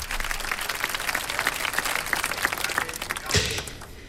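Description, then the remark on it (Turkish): A group claps steadily for about four seconds, a dense crackle of overlapping hand claps with a brief louder burst near the end before it starts to fade. “Alkış sonunda ben hikayeyi başlatıyorum.”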